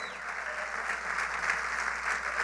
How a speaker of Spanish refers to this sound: Aleluya, aplauda al Rey de Reyes.